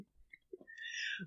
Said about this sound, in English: Oh, bless you.